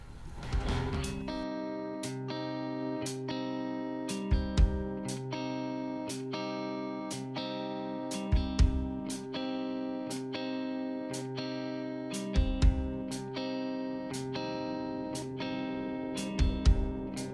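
A distorted rock track with heavy, sustained guitar chords over a steady driving beat, punctuated by regular kick-and-crash hits roughly every two seconds, loud and continuous with no voices.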